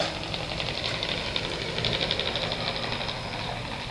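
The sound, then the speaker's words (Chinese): A traveller drags a suitcase into Nanluoguxiang, Beijing, around 4 a.m.; its wheels rattle over the paving tiles in a steady, rapid clatter of small clicks that runs unbroken for the whole few seconds, fairly loud and rough, with no voices. “哦，所以很长时间是那个行李在地上咯哒咯哒的声音。”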